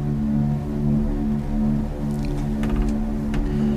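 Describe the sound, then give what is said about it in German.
A 45-second music jingle plays at moderate volume, built on steady, droning synth-like tones that hold throughout, with a few light clicking accents toward the end and no voices. “Das hat einen 45 Sekunden langen Jingle.”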